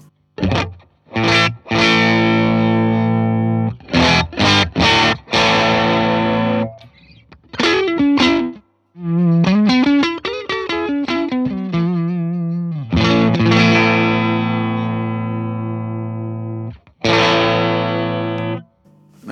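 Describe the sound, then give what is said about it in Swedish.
Electric guitar played through an overdrive pedal plays sustained chords and a run of bending single notes, with crunchy, harmonically rich distortion, short gaps between strums and ringing decays; no voices. “Om man sätter gainen låg så tycker jag att den låter väldigt fint som, som, som drive också.”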